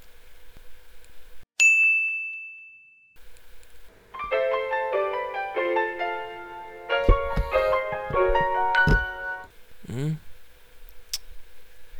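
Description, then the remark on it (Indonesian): An alarm rings: a single bright chime rings out, then a loud electronic melody of repeated high-pitched notes plays for several seconds before ending with a quick descending swoop. “Atur alarm untuk tidur, ya kan?”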